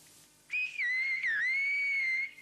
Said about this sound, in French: Oh, ça, c'est très bien. La langue sifflée permettait aux bergers de communiquer d'une vallée à l'autre de façon très nette à des kilomètres, alors que la voix ne deviendrait qu'un écho.